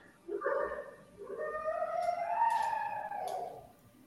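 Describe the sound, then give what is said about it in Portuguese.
A single drawn-out dog howl rises and wavers in pitch for about three seconds, clear with no one talking over it. “É um cachorro”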